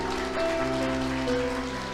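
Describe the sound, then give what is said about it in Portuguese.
A church audience applauds the Lord in a dense, steady wash of clapping that holds for two seconds without pause, with sustained keyboard-like tones humming underneath. “Aplauda o Senhor.”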